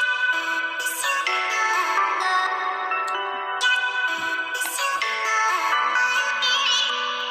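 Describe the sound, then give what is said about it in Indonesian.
A recorded alarm ringtone plays a bright, electronic melody of shifting tones, steady and loud for about seven seconds with no one talking over it. “Soalnya adanya alarm record nih.”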